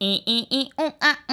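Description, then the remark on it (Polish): A single voice sings a quick, bright melody of six short, evenly spaced syllables, imitating a polyphonic phone ringtone tune. Each note is clipped and bouncy, with the pitch rising and falling. “To były takie dzwonki, które brzmiały tak i u a u”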